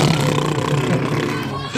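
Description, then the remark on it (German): A narrator's voice makes a sustained, rumbling engine noise with the mouth for a ship or spaceship flying around, a steady buzzing drone lasting just under two seconds, like a child driving a Lego car around, with no words spoken. “oder ein Raumschiff herumgeflogen ist, hast du im Off, also von der Sprecher, so die typischen Geräusche gehört, die jetzt ein Kind oder ein unbeaufsichtigter Erwachsener macht, wenn er jetzt mit einem Lego-Auto herumfährt, nämlich so”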